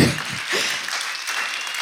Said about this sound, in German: Ja, darf man auch mal klatschen?